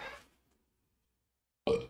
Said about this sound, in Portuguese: Por que essa porca ali me dá vontade de arrotar? Não entendo.